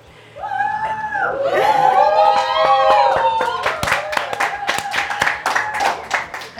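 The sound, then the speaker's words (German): A small live audience in a Technopark breaks into applause, with whoops and high cheering voices at first, then scattered, uneven hand claps that carry on at a moderate loudness. “Und wir hocken jetzt hier mit einer schönen kleinen Crowd von Leuten.”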